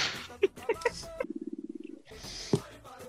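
A stomach growls in a low, rapid, rattling gurgle lasting under a second, clear, between bursts of other noise and movement.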